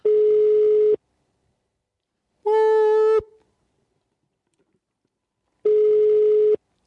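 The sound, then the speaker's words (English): A telephone ringback tone of a call to a cheap hotel in Germany repeats in steady, loud, one-second bursts separated by silence, with a brighter, harmonic-rich chime in between, like a call ringing out on the line. “I'm calling like the middle of nowhere.”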